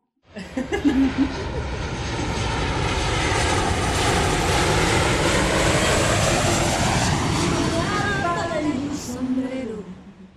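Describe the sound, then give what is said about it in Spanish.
A short closing jingle made of an airplane flyover: a loud, steady propeller engine roar that sweeps past with a falling Doppler pitch, lasting about ten seconds before fading. “Puede ser la cortina, cortina de cierre.”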